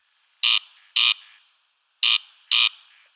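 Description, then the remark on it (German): A corn crake's dry, rasping crex-crex call: four harsh, grating bursts in two pairs separated by a short pause, loud, with no voices. “Also Wachtelkönig, go.”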